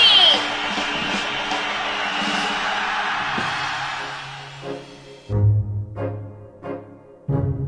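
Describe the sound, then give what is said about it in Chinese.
A dense wash of audience applause and cheering with a few yells, welcoming the host at the opening of a talk show, fills the first five seconds, then cuts off abruptly, leaving a handful of short, loud bursts of sound. “女士们、先生们，Ladies and Gentlemen，现在是大明脱口秀时间，掌声欢迎我们亲爱的 s t a r”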